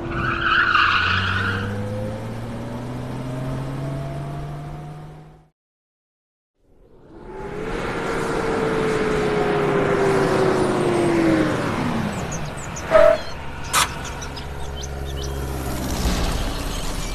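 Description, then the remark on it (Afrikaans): A small plane's engine drones and whines with sliding pitch, goes briefly silent, then roars back and dives downward before a couple of sharp crashing impacts near the end as it crashes into a neglected house on a farm. No one speaks. “Die vliegtuig is in 'n huis in.”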